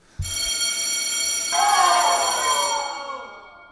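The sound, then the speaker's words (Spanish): A loud electric school bell rings continuously for about three seconds, a bright metallic clanging that starts abruptly and then fades out, with no talking. “Sí, esa campana del colegio trae emociones encontradas.”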